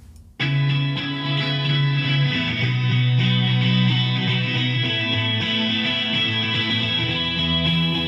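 A rock song starts after a brief pause, with dense, distorted guitars washed in effects, sustained low notes shifting underneath, and a steady, loud full-band sound throughout, with no singing yet.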